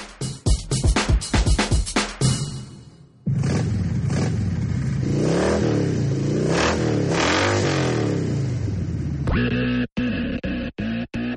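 A car engine roars loudly, its pitch climbing and falling through repeated revs, with sharp bursts at the start and a few abrupt cutoffs at the end.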